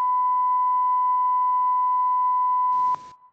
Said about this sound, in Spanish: Y luego eh, hay otra persona, pitido.